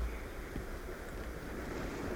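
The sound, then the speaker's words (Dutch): Waves of an exceptionally strong high tide wash in a steady, continuous roar of surf, with a constant low rumble and hiss and no distinct individual breakers or voices. “Het is een, eh, een buitengewoon sterke vloed, niet?”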